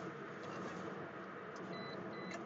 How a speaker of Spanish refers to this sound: eso que escuchan ahí es que tiene unos sensores para que no te salgas de las líneas. Cuando te empiezas a acercar mucho a la línea, ya sea al lado derecho o al lado izquierdo, te avisa, ¿no?